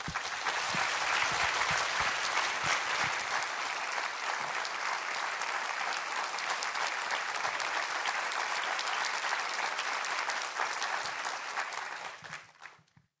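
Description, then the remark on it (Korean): An audience claps steadily in a dense, sustained wash of applause that holds evenly for about twelve seconds before tapering off and fading out at the end, welcoming and thanking a missionary as he comes forward to preach. “우리 선교사님 나오실 때 큰 환영과 또 감사의 박수 전해드리도록 하겠습니다.”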